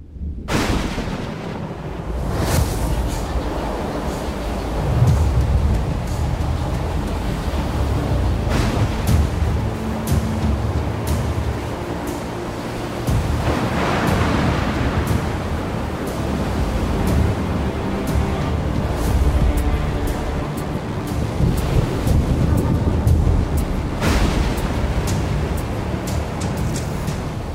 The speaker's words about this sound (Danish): Det lyner og tordner i det fjerne, og regnen siler ned. Himmel og hav går i et, og bølger så store som de højeste bjerge rejser sig forud og gør havet endnu mere vildt og voldsomt at se på.